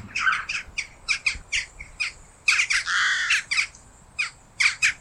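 bird, jackdaw calls

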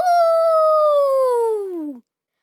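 animal, wolf howling

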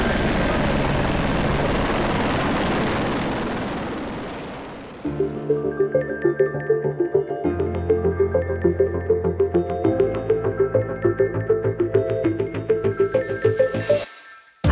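vehicle, helicopter flying

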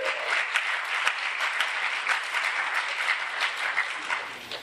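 crowd, audience applause

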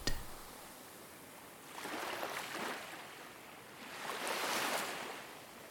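nature, gentle waves lapping

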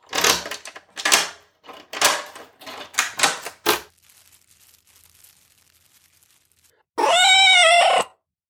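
animal, cat meowing loudly

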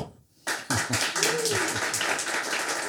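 crowd, audience clapping

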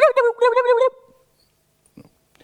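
bird, wild turkey gobbling

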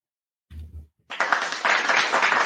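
human body sound, hands clapping

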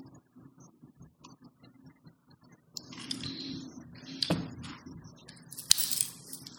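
food or drink, sipping tea

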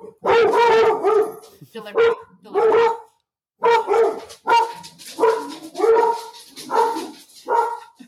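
animal, dog barking

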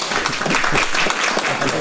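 crowd, applause

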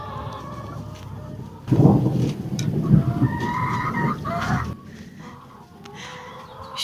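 nature, thunder

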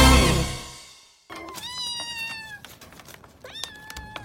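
animal, kitten meowing

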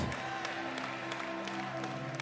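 crowd, audience clapping

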